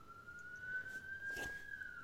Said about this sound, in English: And then you've got the police sirens that are going past.